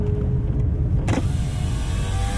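A car drives along with a steady low engine rumble; about a second in, a brief rush of noise swells and the hum continues more broadly. No one speaks.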